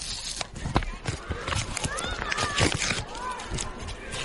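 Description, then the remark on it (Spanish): Paper rips and crinkles in a run of sharp, scratchy bursts as a well-wrapped book, the poetry collection Abajo había nubes by Carlos Alberto Palacio, is torn open during a live broadcast, with people's voices murmuring underneath. “que mira, para que se escuche, que es de verdad, que se escuche el rasguido del papel.”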